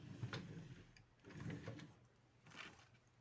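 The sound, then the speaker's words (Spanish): A woman shifts about and sits down on a chair, making three soft bursts of rustling and creaking, fairly quiet, with no talking. “Me voy a sentar ahora. Estaba sentada en la silla que tengo, pues, que tengo en la, en la otra punta de la habitación.”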